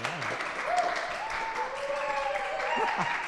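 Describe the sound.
A small live audience in Studio A at Lumpen Radio applauds, a dense, steady patter of clapping that holds at an even level for a few seconds, with faint voices mixed in underneath.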